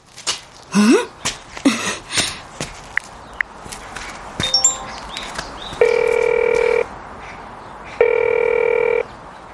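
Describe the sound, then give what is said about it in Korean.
A phone ringback tone purrs twice in long steady bursts, each about a second, after a scatter of soft clicks and handling noises; nobody picks up and no one speaks. “곧바로 전화를 걸었지만 여전히 받지 않았다.”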